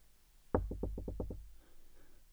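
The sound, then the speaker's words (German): A quick series of about seven sharp knocks on a door, evenly spaced and fairly loud, followed by quiet. “Moment, ich muss einmal kurz gucken. Wer kommt denn da?”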